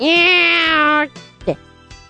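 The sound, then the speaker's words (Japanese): A person, retelling a picture-book folk tale, lets out a long, drawn-out vocal imitation of a cat's meow, loud, lasting about a second, followed by a brief bit of quieter voice. “猫の鳴き声を真似て、みんなをびっくり仰天、たまげったにさせた上で、逃げろーってこう、小判を持っていくわけ。”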